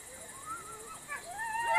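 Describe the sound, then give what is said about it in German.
A wolf pup, the only pup in the pack, whimpers in the forest, several thin, wavering whines sliding up and down and growing a little louder, with a steady chirr of crickets in the background. “Dann ein Fiepen aus dem Wald. Es ist der einzige Welpe im Rudel, der sich eher im Hintergrund aufhält.”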